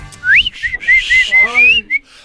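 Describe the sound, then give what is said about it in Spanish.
A person whistles a short, lilting tune of several quick rising and falling notes, fairly loud, with faint background murmur underneath. “Cuando paso por tu casa y te chiflo.”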